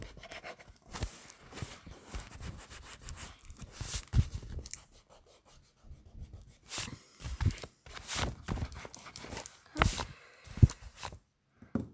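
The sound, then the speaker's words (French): A table knocks against a wall in irregular, uneven thumps while someone erases on it with an eraser, scrubbing busily, with short pauses between bursts of scratchy rubbing. “Quand je gomme ma table, tape contre mon mur, ça, ça fait un camp hein, ça va faire une trace dans le mur.”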